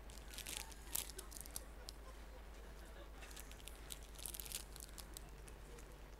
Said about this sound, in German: Und du musst dann einfach mal sagen, du musst einfach mal die Tüte aufmachen.